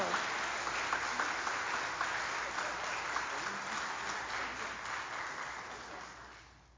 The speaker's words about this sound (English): Let's give these wonderful people a round of applause, shall we? Thank you.